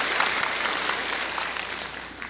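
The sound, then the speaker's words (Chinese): Steady, dense applause from a crowd welcoming a student of the master, many hands clapping at once in a continuous wash of sound that stays loud and even throughout, with no voices. “我们以热烈的掌声来欢迎他。”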